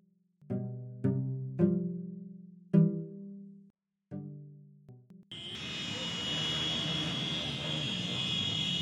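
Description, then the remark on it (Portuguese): A string of loud car horns honks in short, uneven blasts, then gives way to a steady, dense roar of traffic noise from a motorcade, a procession of vehicles with horns blaring, held as a final farewell. “Esse som que você ouve se assemelha a uma carreata, não é verdade?”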